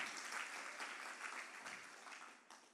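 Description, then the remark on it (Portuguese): An audience at a church service applauds Jesus at the preacher's call, a dense, steady wash of many hands clapping that holds at an even level throughout, with a brief voice rising at the very end. “Aplauda Ele.”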